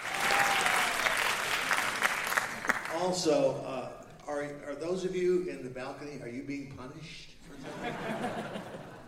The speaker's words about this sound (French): Pour qui sont ces applaudissements À qui appartient cette belle voix qui se moque des gens au balcon à …, bien sûr.